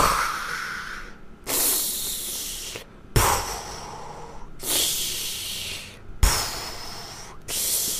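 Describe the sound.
A voice imitates heavy, hissing breaths, the sound of a person's own breathing during a DMT experience, alternating rasping inhales and exhales in a slow steady rhythm, about five cycles, fairly loud with no other sound.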